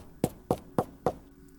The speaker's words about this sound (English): So Nameless and Anwar went to his house, and they knocked on the door.